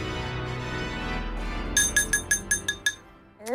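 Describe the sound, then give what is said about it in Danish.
A utensil taps a glass for a toast about seven times in quick, even succession, each clink bright and ringing, over a steady low background of music-like tones. “Nå, skal der slås på glasset derovre?”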